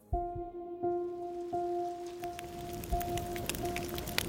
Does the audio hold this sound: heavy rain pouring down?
yes